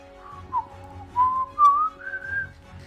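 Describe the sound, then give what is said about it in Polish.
A sergeant walks away whistling softly, a wandering tune of gliding, sustained notes, with a faint low rumble underneath and no talking. “a sierżant Rain odchodzi pogwizdując cicho”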